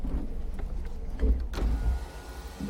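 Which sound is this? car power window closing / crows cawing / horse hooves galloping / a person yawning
car power window closing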